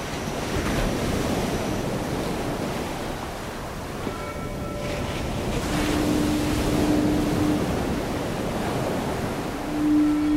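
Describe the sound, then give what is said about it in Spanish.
Ocean waves rolling and breaking on a shore near a lighthouse, a steady broad wash of surf with gusts of wind buffeting the microphone and a faint tonal hum drifting in partway through. “Al menos el mar sigue siendo el mismo.”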